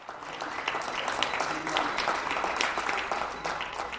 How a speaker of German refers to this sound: Mittwochabend 20 Uhr in der Rue Saint-Bernard, Paris 11. Arrondissement. Wie überall in Frankreich gibt es Applaus für das Pflegepersonal in den Krankenhäusern.